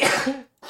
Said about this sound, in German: Kurz niesen, red weiter.